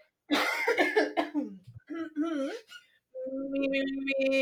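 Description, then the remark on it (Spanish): After a laughing fit, a person coughs and clears their throat in rough, raspy bursts, followed by a few short voiced sounds and a sustained hum, as a vocal warm-up before recording. “Así que vamos a hacer calentamiento, vamos a primero sacudir las gargantas”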